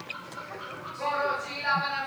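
A crowded poultry house in a chicken meat production facility, full of chickens, their overlapping clucks and high peeps forming a steady, dense chorus that swells slightly louder toward the end.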